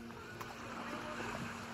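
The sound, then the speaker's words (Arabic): A steady wash of seaside waves and wind at the town of Worthing in the south of the United Kingdom, fairly quiet and continuous, with a faint low hum running underneath and no distinct individual breakers. “هذه بلدة وورثينغ جنوب المملكة المتحدة اعتاد المصطافون من الأثرياء قضاء عطلتهم هنا حيث البحر والهواء النقي”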